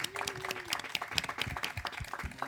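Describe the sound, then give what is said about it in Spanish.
Dense audience applause, many hands clapping in a steady, fast patter at moderate loudness, with a faint tonal whistle or cheer rising briefly beneath it. “fuerte aplauso para los chicos.”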